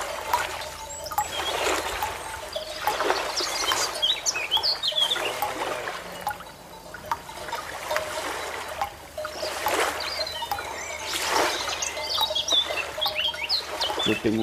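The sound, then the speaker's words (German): Busy outdoor ambience of birds chirping and calling, with repeated bursts of chatter and clucking-like calls over a steady background wash, fairly loud and continuous throughout. “Birds.”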